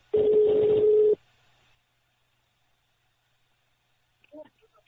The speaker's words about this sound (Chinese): 我们来接通他的电话吧。